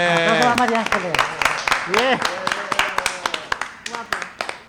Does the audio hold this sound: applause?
yes